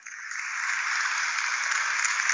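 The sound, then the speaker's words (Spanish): A large crowd gives a standing ovation, bursting into sustained applause, swelling quickly in the first moment and then holding a dense, steady roar of clapping with no voices on top. “Ovación, ovación de pie.”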